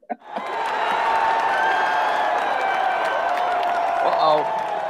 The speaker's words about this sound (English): I think that I think they're cheering for LeRoy. No, oh, wait a minute. I think they're cheering for me.